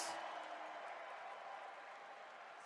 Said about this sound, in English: Isaiah Jackson, free throw. George Hill checks in. Crowd gives him another warm round of applause.